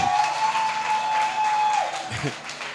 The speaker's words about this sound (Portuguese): E a igreja pode aplaudir a esse Deus.